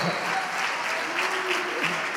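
Steady, dense applause from a crowd for the team members, a continuous wash of many hands clapping at a fairly even level, with faint traces of voices mixed in underneath.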